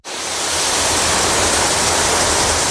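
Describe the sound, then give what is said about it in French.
A steady, loud rush of spraying water from a Total Wash car wash treatment on a car, a dense hiss spread across the whole range with a low rumble underneath. It holds constant for the full clip, with no talking. “Ce son, c'est celui d'un soin de lavage Total Wash qui redonne tout son éclat à votre auto.”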